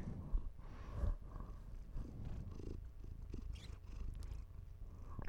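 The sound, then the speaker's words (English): A female cat sitting on a person's lap and chest purrs steadily into the microphone, a low continuous rumbling throb with a few soft breathy bumps, filling the whole stretch with no talking. “She purred into the microphone.”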